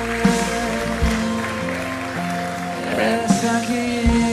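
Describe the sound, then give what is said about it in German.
A church audience applauds Jesus in a steady, dense wash of clapping that runs through the whole clip, mixed with sustained keyboard chords playing underneath. “Lass uns Jesus mal einen großen Applaus geben.”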